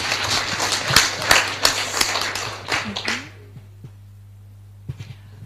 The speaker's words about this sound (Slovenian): dame in gospodje, en aplavz, prosim, za fotografa.